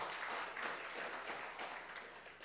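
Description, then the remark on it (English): A church audience applauds its deacons and serving members in a dense, steady wash of clapping, many hands together at an even loudness with no voices standing out above it. “So, a round of applause to you as well.”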